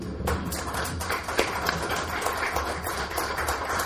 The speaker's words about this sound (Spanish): Y es así como queda la firma del convenio de colaboración InfoDF, Delegación Venustiano Carranza. Fuerte aplauso.